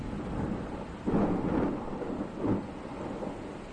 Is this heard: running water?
no